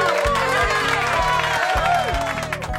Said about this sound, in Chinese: 当乐队演奏起马赛曲时。大家异口同声的欢呼起来